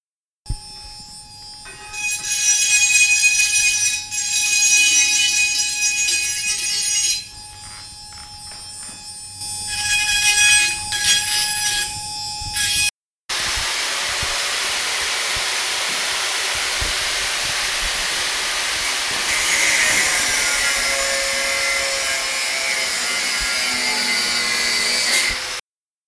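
An angle grinder cuts off metal struts, loud and continuous: a steady high motor whine with bursts of cutting, then a brief break before a long, harsh, hissing grind. No one speaks.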